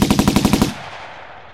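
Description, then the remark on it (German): A rapid burst of machine gun fire from communist border guards on the towers of Berlin's Oberbaumbrücke, shooting at a boat turning into the Landwehrkanal: about seven sharp loud shots in quick even succession, then a decaying rumbling echo trailing off for nearly a second. “Die bis dahin ahnungslosen kommunistischen Grenzposten eröffneten sofort das Feuer, und zwar einmal von den Türmen der Oberbaumbrücke, die ständig besetzt sind, dann von einem Wachhäuschen an dem Landungssteg im Osthafen von einem Wasserschutzboot”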